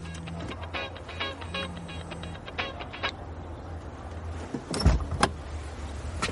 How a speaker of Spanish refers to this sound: Más tarde conduce de nuevo cuando vuelve a sonar el teléfono. Para el coche y se baja para responder la llamada.